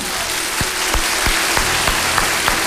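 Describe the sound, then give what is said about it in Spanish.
A crowd applauds steadily, a dense hiss of many hands clapping at even loudness, with soft low thumps recurring about three times a second. No one speaks over it. “¿Cree usted que se lo debamos aplaudir?”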